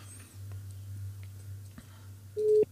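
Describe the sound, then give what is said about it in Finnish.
A low steady hum runs under faint clicks, then a single short, clear telephone tone sounds loudly near the end, like a busy signal on an unanswered phone call to a city official. “Miksi tämä ei vastaa?”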